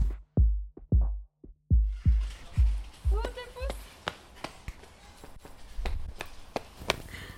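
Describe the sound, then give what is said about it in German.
Quick, heavy footfalls of a driver running after buses thud in a steady running rhythm, then continue more faintly over rising background noise with scattered sharper knocks. “und ihr heute meine Schritte.”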